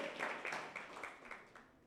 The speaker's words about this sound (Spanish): Bueno, aplaudámosle a Dios, o sea, doble bendición, 2020, 20, 20, 20. Muy bien.